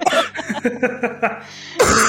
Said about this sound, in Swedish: oh, gud, då får jag hostanfall här.